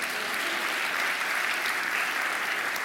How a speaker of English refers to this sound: Would you give him a round of applause as he takes his seat? Thank you.